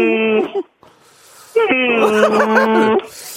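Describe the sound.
A person imitates a dairy cow's moo with the voice, giving a short drawn-out low call, a brief pause, then a longer wavering moo that rises and dips in pitch, fairly loud.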